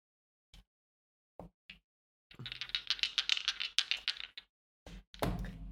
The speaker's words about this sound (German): Tja. ich habe eine. Ich habe insgesamt eine 7 gewürfelt.